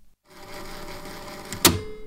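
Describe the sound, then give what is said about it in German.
A cassette recorder's mechanism whirs steadily after a brief silence, then a single sharp plastic clack rings out near the end as the tape is flipped. No one speaks. “Wer muss denn heute die Kassette umdrehen?”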